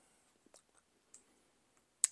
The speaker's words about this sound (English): So I'm taking it off the keyboard and just putting it on a uh, little cover thing to take out for my treadmill to keep it from getting scratched up.